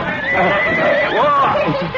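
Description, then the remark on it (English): A horse pulling a carriage whinnies loudly as it rears up, one long shrill neigh whose pitch wavers and swoops up and down for about two seconds. “I saw the horse rear up, the carriage about to topple over.”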